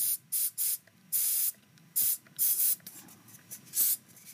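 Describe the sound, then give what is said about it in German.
An almost empty deodorant aerosol spray can sputters inside a cupboard in short, uneven hissing bursts, about eight quick sprays with brief pauses between them, fairly loud. “Mein Deo ist leer.”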